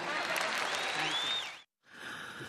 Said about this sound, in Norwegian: Ja, der hørte vi altså … på en konsert hvor, han, hvor, publikum begynte å applaudere, og han takket og sa at hvis dere syns at det var så fint å høre meg stemme, sitar han, så håper jeg dere nyter det enda mer